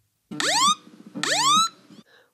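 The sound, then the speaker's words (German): Two loud, rising electronic alarm sweeps, each a harmonic tone swooping upward over a buzzing base, repeated with a short gap: an iPhone's crash detection alarm going off on the phone, with no talking. “Zuerst wird eigentlich direkt auf dem iPhone ein Alarm ausgelöst.”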